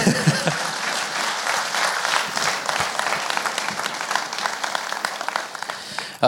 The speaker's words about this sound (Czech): Děkuji. Klidně můžete zatleskat.